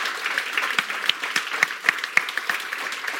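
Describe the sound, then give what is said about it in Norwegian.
An audience applauds steadily, a dense wash of many hands clapping with a few sharper individual claps standing out. The applause holds at an even, moderate loudness throughout with no voices. “Men eh, så en applaus Kanskje for helga.”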